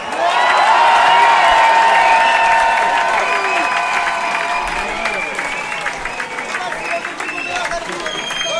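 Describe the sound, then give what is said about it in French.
A big festival crowd in Marseille roars with cheers and whistles over dense, continuous applause, loud throughout and easing only slightly toward the end. “Un maximum de bruit pour toutes les équipes du festival”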